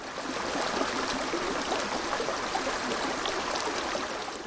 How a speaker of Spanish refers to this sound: Y mientras iniciamos el ascenso, más abajo, junto a la carretera, el río Vidasoa sigue su curso serpenteante, sin detenerse.